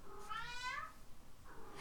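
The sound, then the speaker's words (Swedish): A cat lets out one drawn-out, rising-and-falling meow, followed by the start of a second shorter meow near the end, with no talking. “Jag frågade inte dig, katt.”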